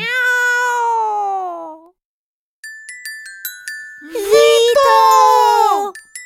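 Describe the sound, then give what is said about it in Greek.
Two long, loud, drawn-out cat meows with falling pitch, the second rougher and more yowling, separated by a short run of bright, tinkling chime notes, as the cat Passepartout is shooed away from a bookshop. “Ο δρόμος είναι ελεύθερος και τα γατιά διωγμένα”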